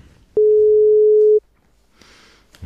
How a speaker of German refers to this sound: Es klingelt, es klingelt.